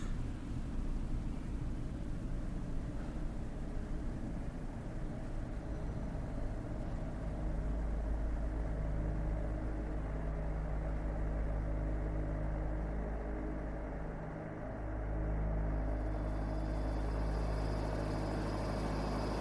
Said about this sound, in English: The engine tore apart silence with its thunder, and with it, the darkness.